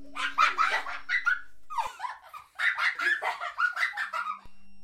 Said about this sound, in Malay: Kedengaran suara kanak-kanak ketawa.